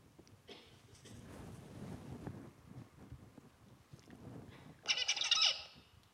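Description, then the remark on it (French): A brief, bright burst of a tutor songbird's recorded song, the song young birds are to learn, rises near the end, about a second of rapid high notes, over a steady low rumbling, wind-like background with no talking. “Voilà le champ du tuteur qu'ils vont apprendre.”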